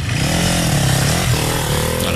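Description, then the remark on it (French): A motorcycle engine idles steadily, its low, throbbing rumble continuous and loud with a slight buzzing rattle, no voices present. “Le moteur de la lui, tourne au ralenti en ce moment.”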